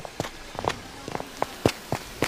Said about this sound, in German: Ich dachte schon, die Schritte sind von dem grauen Sucher aus dem Automobil.